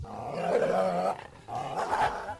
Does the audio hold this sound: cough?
no